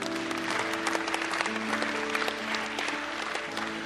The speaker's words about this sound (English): the reason why people were clapping is because they were in a service just like this